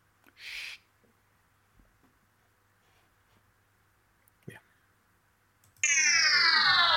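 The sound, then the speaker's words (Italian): After a stretch of near silence with a short hiss and a faint click, a loud theme jingle bursts in near the end, bright and dense with sweeping, falling tones. “La sigla la sentiamo.”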